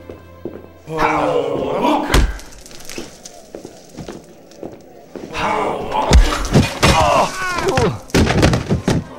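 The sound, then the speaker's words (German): Several heavy thuds and bangs land at irregular intervals as people in a hotel bar try together to force a door open, with straining voices and muffled talk around them, fairly loud. “In der Hotelbar versuchte man mit vereinten Kräften, die Tür aufzubrechen.”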